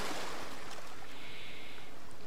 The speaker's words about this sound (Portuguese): Enfim, onde eu estou agora? Bom, digamos que eu tenha pego um iate emprestado e estou em alto mar, flutuando sem rumo.